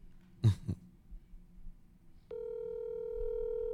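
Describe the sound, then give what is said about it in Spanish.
A couple of quick throat-clearing coughs, then a steady, buzzy phone ringing tone of an outgoing call comes on and holds evenly, fairly loud, until the end. “Estoy llamando a Arturo”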